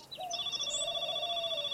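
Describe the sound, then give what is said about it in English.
A telephone rings with a steady electronic tone, sustained pure notes held through the whole moment at a moderate level, with no voices. “We all cover the phone.”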